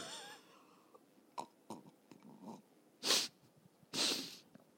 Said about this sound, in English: Do you guys like listening to my my passive aggressive sips in between?